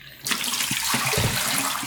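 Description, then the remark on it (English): Water suddenly starts pouring into a Stearman press film developing tank for a water stop during film development, a steady splashing rush that fills the whole clip with no one speaking. “And so yeah, I'm I think doing a water stop right now.”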